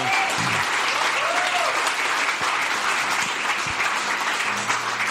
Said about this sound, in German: Super, wir haben. Gebt ihnen einen Applaus, genau.